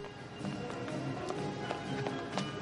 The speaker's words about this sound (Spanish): cruza el patio corriendo.